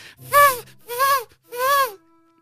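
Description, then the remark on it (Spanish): Three breathy, wavering notes, each about half a second, sliding off pitch, like off-key school flutes, mimicked by a voice. Loud and alone, with short gaps between notes. “Ahí suenan las flautas.”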